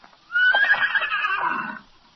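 A horse named Victor whinnies once in triumph, a loud, wavering neigh lasting about a second and a half that rises and then trails off, with no talking.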